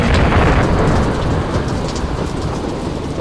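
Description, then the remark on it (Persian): Heavy rain pours down on the houses of Bidar in a loud, continuous hiss, dense throughout, with a deep low rumble underneath that eases slightly after the first second. “بارون میاد جر جر رو خونه های بیدر”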